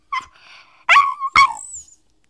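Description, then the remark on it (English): A dog named Kylo lets out three short barks with whiny, drawn-out tails, spaced about half a second apart, then falls silent. No one speaks. “Kylo, I'm going to need you to bark.”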